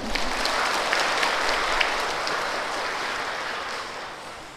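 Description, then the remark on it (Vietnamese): A crowd at a Buddhist ceremony applauds steadily as the new followers applaud themselves for becoming Buddhists, a dense wash of many hands clapping at once that holds for several seconds and tapers only slightly, with no voices over it. “và hãy xem mình có được diễm phúc hơn khi từ nay trở đi đã chính thức trở thành phật tử tức là đệ tử của đức phật hãy dâng cao tràng vỗ tay để tự tán dương mình”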